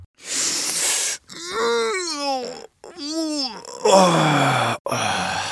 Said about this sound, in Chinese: 许多人一早起床，总是从一个伸懒腰、打哈欠开始。